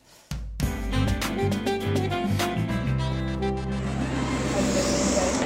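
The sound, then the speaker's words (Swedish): Busy train platform ambience in Munich: a steady low mechanical rumble with droning tones and scattered clanks and clicks, starting abruptly after a brief moment of quiet and staying loud throughout. “just nu sitter jag på en perrong i München och väntar på ett tåg.”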